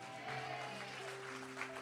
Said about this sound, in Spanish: Vamos, eso merece un mejor aplauso.